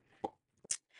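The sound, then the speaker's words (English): A puppy playing with her toys, heard as two short, soft thuds and clacks about half a second apart, followed by a brief rustle, with no talking. “My puppy has decided this is a fabulous time to play with her toys.”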